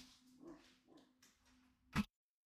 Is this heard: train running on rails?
no